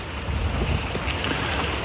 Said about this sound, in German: Da kommt man gerade einem Jogger entgegen, der sich durch den Wind kämpft.